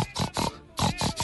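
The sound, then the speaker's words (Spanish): A voice imitates a mother pig's soft, rhythmic grunting song to her piglets: six nasal grunts in two groups of three with a brief pause between, fairly loud, with no talking. “Eso es un canto de madre cerdo.”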